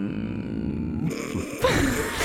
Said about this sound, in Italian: Vediamo, facciamo una gara? Sì, dai. Vediamo chi è che riesce a tenere il mm, più a lungo. Dai, 3, 2, 1, via. Mm.